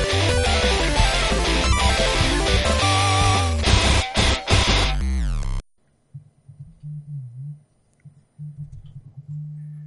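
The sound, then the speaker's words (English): Loud, dense music plays for about five seconds and stops abruptly, leaving a low buzzing in uneven bursts from a phone vibrating on a desk. “Yeah, it's someone's Damn, is it vibrating?”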